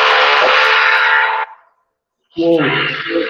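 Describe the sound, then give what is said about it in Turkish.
Loud, harsh construction noise, likely drilling or grinding, from demolition work renovating the home on the floor above comes in two sustained bursts separated by a short silence; the second burst carries a strained, whining tone. “benim üst katımda bir inşaat faaliyeti var. Evi yeniliyorlar da o galiba yeniden başladı.”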